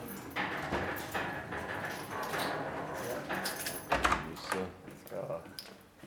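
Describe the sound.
A door in a basement archive storing records is opened and pulled shut, with keys jangling and a few sharp clunks and rattles, while people talk quietly in the background.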